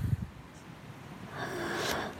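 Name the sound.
man snoring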